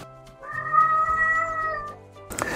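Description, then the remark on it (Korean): A cat in heat lets out a long, drawn-out yowl of a mating call, rising and wavering in pitch for about two seconds, loud, followed by a brief noisy rustle at the end. “유잉 사운드라고 래서 구애 소리입니다. 메이팅 콜이라고도 하는데요.”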